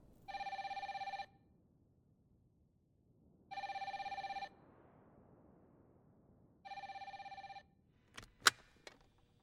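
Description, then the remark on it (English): A telephone rings three times in steady, evenly spaced bursts, clear and fairly loud, followed by a couple of sharp clicks as if the receiver is picked up. No one speaks. “Months later, Angela is back in Canada. She calls Julia.”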